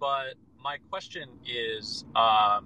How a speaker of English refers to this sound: So, apologies for any background noise. I'm also driving.